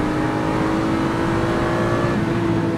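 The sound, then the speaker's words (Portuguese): A car engine held at high revs to decarbonize it after the car sat parked for a long time, a loud, steady droning whine that stays constant throughout with no rise or fall, with no voices. “Esse carro fica parado muito tempo, ele precisa descarbonizar.”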